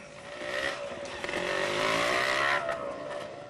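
A small 150 cc, 12 hp motorcycle used for habal-habal passenger transport buzzes steadily as it rides along, its revving drone rising and falling slightly with a rough, raspy edge and no voices.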